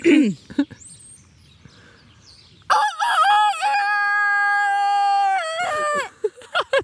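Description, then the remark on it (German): A person on a farmyard imitates a rooster's crow: one long, loud cock-a-doodle-doo that rises, holds a strained sustained note, then drops off, following a few seconds of near quiet. “jetzt traust du dich nicht einen Hahnschrei zu machen”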